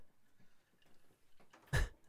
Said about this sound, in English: we could open the door more slowly.